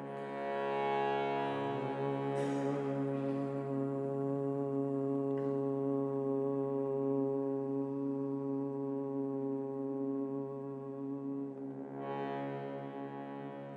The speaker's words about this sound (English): So try to be aware of both the sound you're creating and the group sound. So let's just start with humming. Big breath in.